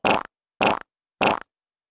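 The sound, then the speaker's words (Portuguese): A fart sound effect, played for the speaker's mother from a set of sound effects, repeats three times, each a short, identical, raspy burst separated by even pauses of silence, played clearly with no voices around it. “Eu toquei aqui um efeito sonoro de peido pra minha mãe e ela lembrou do sítio.”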